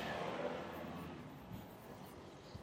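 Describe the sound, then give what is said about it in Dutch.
A car passes by outdoors, a broad whooshing rush that is loudest at first and then slowly fades as it moves away, with no one speaking. “Ja, daar komt de auto langs”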